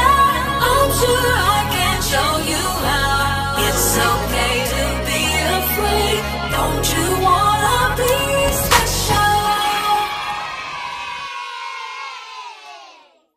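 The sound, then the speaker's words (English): A hip-hop song plays loud, with a heavy, shifting bassline and dense layered vocals and instruments, then cuts out and rings away into silence near the end. “That song was bumping compared to the first one, wasn't it, y'all?”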